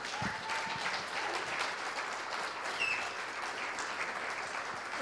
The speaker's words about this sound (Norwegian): Helt seriøst, jeg syns vi kan godt gi den gjengen som leder oss i lovsang, en god applaus.